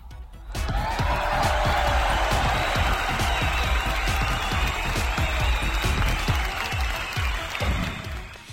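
Loud applause from a crowd, dense overlapping claps sustained steadily for about eight seconds after a brief quiet start, with no one speaking over it.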